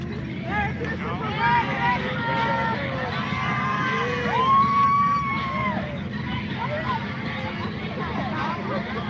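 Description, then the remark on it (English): A nice-sized crowd gathered down below murmurs, a steady hubbub of many overlapping voices over a continuous low rumble, with no single voice standing out. “Look at that nice sized crowd in the background down there.”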